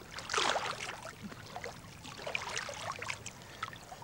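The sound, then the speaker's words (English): Water splashing and sloshing from a person swimming in warm water heated by nearby hot lava, with a burst of louder splashes at the start followed by steadier, rhythmic lapping and dripping, no voices. “Swimming along here, the water's quite warm.”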